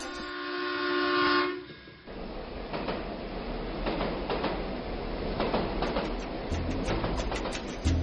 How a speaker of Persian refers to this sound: اما برای خیلی از ما قطار صدای حرکتش حتی بوغ اون حسی نوستالژیک ایجاد میکنه